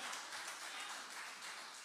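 A crowd in Lugano applauds for Jesus steadily for about two seconds, a dense, even wash of many hands clapping together with no voices rising above it.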